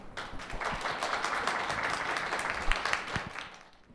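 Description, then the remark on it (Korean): A room of people applauds steadily for a few seconds to welcome a speaker who has come to tell her story, a dense wash of clapping that holds its level and then thins out toward the end, with no one speaking. “여러분들 박수로 맞아 주시기 바랍니다.”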